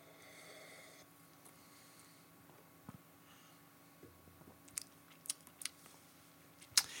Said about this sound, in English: Let me have a sip.